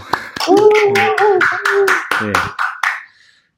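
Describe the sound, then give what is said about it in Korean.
Brief applause welcoming a special guest on a show: roughly a dozen sharp, uneven hand claps from a few people, with a voice talking over them, tapering off into silence at the end. “네, 박수.”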